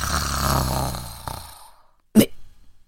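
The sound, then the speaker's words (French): Loud, rough snoring of a wolf taking a nap: a drawn-out rumbling snore that fades over about a second and a half, then a brief silence and a short, sharp snort. “Le loup ronflait si fort qu'un chasseur qui passait par là l'entendit.”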